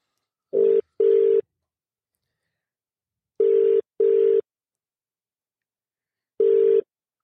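A telephone ringback tone sounds through the line in short double bursts, two pairs followed by a single ring, evenly spaced with silence between and no one speaking.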